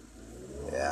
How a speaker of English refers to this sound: started the car.